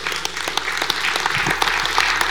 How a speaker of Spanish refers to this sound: Entonces denle un aplauso al Señor.